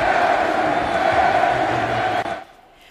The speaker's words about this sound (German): Messi-Sprechchöre also von den Rängen nach dem äh, Doppelpack von Lewandowski, die waren natürlich sarkastisch und damit sollte natürlich gezeigt werden, die Wahl von Messi, die war nicht im Sinne der Fans.